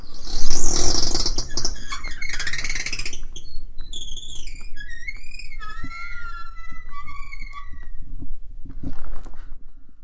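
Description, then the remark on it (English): A voice imitates passing gas with a string of high, squeaky, wavering tones that slide up and down in pitch, starting with a loud rough burst and ending with a short sputter. “Interestingly enough, when I have gas, yeah.”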